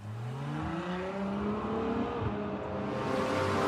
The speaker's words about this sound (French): Ferrari laisse quelques respirations pour entendre la douce sonorité du V12 6 litres 5 atmosphérique. C'est le même que celui de la 812 Superfast dont elle dérive avec 10 chevaux de plus toutefois.